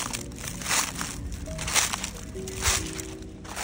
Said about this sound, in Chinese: 刚刚前面有提到我去了阿里山的眠月线嘛，所以本周的生活录音当然就是我这次旅途中所录到的声音。只能说大自然真的很有魔力耶，呃，无论是踩在石头上的声音，或是踩在落叶上的声音，